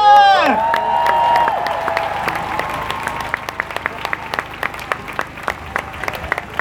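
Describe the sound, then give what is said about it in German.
A crowd bursts into applause after a speech by the initiators of last year's Black Lives Matter demonstration, with loud cheers and high whoops at the start; the shouting fades after a few seconds, leaving steady clapping that thins into scattered, sharp individual claps. “Applaus, Leute!”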